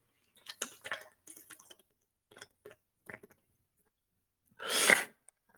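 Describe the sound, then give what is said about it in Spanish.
Someone drinks a little water: soft sipping and swallowing sounds in a few small bursts, followed by a louder breathy exhale near the end, with no talking. “Voy a tomar un poquito de agua, con permiso.”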